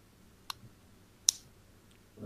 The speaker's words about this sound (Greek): Κάπου ακούγεται ένα κλικ. Έχεις ένα στυλό ναι. στα χέρια